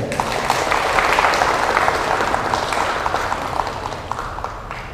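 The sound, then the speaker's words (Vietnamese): Loud, sustained applause from a large audience at Giác Ngộ pagoda, a big round of applause for a fund's board of directors and members, dense clapping filling the whole stretch at a steady level before easing off slightly near the end. “xin quý vị dành một tràng pháo tay thật lớn”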